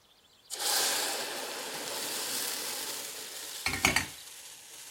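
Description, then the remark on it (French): Half of the cream is poured into hot caramel to deglaze it, with a sudden loud, steady hiss of bubbling as it rises in volume, continuing for several seconds, followed by a few brief clinks of a utensil near the end. “Je déglace, je mets la moitié de la crème dans mon caramel.”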